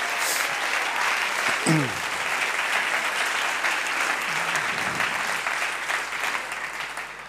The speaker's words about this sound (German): Ja, das ist die Moni. Und gibt der Moni auch mal einen Applaus.